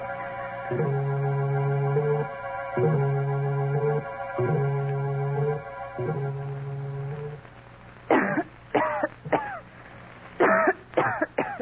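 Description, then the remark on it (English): A woman coughs in harsh bursts, two quick clusters near the end, after several seconds of repeating low, droning tones with no talking. “Then I went to bed and waited impatiently for Agatha to start coughing.”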